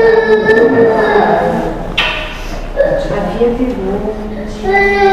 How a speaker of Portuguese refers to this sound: Um, dois. Abriu o choro, né? Hum. Tá contando a contagem regressiva é para abrir o choro. Eu? É um belo exemplar de humano. Não tem o que quer, é, chora.